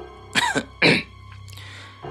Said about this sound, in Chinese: 高栋咳嗽了一声，示意等下再讨论。